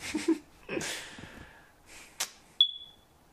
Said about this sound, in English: smoke yeah. alarm sorry yeah that started coming on in the middle yeah